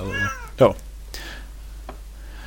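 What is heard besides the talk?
cat meowing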